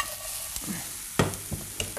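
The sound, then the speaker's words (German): A tablespoon of raw cane sugar sizzles and caramelizes in a hot frying pan: a steady hiss with a few sharp scraping and clinking sounds of a utensil stirring, fairly quiet, no talking. “Das wird jetzt super, das karamellisiert. Jetzt, jetzt geht's ab in der Pfanne.”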